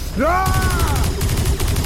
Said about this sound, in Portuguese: Brian apontou acima do mecha, puxou o gatilho e gastou todas as suas balas para atingir a seiva que voava